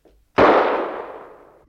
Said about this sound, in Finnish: Mitä se on? Ihan kuin olisi ammuttu jossakin lähestöllä